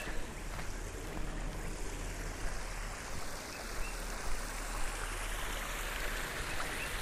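nature, creek water flowing

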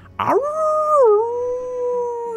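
animal, wolves howling

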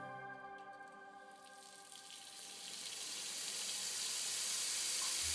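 household object, running water tap

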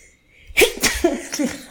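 human body sound, sneeze

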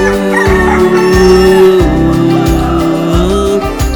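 animal, rooster crowing

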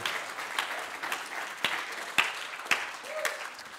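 crowd, audience clapping

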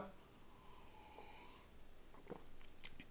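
food or drink, sipping a drink

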